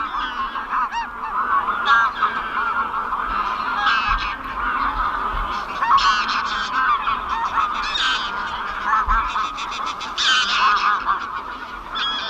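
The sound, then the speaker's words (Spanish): A large flock of wild greylag geese, hundreds taking off, honks continuously, overlapping calls forming a dense, noisy chorus that stays loud and steady throughout, with no voices present. The geese arrive en masse across the Pyrenees to spend winter in southern Europe. “la llegada también masiva de los gansos silvestres, los ánsares comunes”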